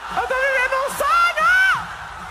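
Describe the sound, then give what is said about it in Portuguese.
A concert crowd screams and cheers, with shrill, sustained shrieks overlapping and rising in pitch. The sound is loud and continuous, filling the whole short stretch without a break. “Só que a diferença aí entre esses, essas duas gritarias, essas duas intensidades,”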